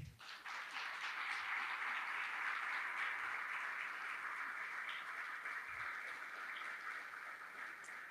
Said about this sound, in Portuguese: Você pode aplaudir o Senhor, por favor?